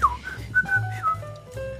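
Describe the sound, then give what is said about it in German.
A person whistles a short family whistle: a handful of clear, sliding notes with a quick trill, rising and falling in pitch over under two seconds, with no talking. “habt ihr auch einen Familienpfiff?”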